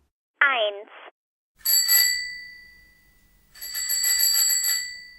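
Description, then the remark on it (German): A bicycle bell rings twice, each a bright metallic ring with sustained high overtones that slowly fade, following a brief voiced sound at the start. “Das war eine Fahrradlocke.”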